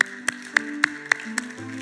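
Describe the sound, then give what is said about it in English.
Steady rhythmic clapping, about six sharp claps spaced evenly, over a sustained musical tone; the claps land in unison like a crowd keeping time, with no talking. “You clap.”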